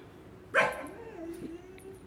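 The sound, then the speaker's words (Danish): A small dog that has been left behind gives a short, sharp yip, then keeps whining in a thin, steady, slightly wavering tone for over a second, fairly quiet. “Og der er en lille wuff-hund, som er blevet efterladt. Måske mangler den sådan sine cigaretter eller noget. Men den piver lidt.”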